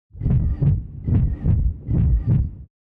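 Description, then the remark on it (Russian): A simulated pulsatile tinnitus: a muffled, low whooshing throb pulsing in steady heartbeat-like pairs, about six beats in quick succession, fairly loud, with no voices. “Погуглив, я поняла, что, похоже, мой тинитус так и называется – пульсирующий.”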